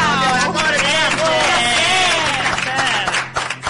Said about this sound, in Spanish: Fuerte aplauso.